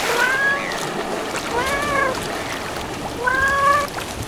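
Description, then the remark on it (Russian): A ginger cat named Mister Thomas meows three times in slow succession while hunting birds in the reeds near Taganrog, each meow drawn out and mid-pitched, over a steady hiss of background noise. “Да вон он в камышах на птиц охотится Томас, иди сюда, я тебя за ушком почешу”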